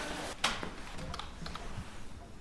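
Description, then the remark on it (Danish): Irregular clicks of typing on a computer keyboard as visitors are signed in, a handful of light keystrokes spread over a couple of seconds, fairly quiet against a faint background hiss with no voices. “I skal lige skrive jer ind der på computeren.”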